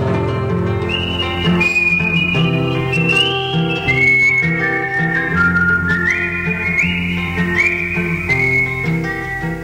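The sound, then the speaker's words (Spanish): A clear whistled melody glides in stepped notes over a full instrumental accompaniment, staying loud and steady throughout without any voices. “muchos me han visto pasar silbando mi chamarrita de tropero montará.”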